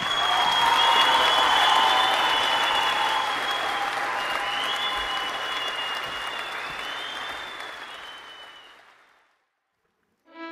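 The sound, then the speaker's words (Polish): Loud, dense applause from a crowd with some whoops, sustained for about nine seconds before gradually fading out to silence, followed by a brief musical sting at the very end. “Wielkie brawa raz jeszcze.”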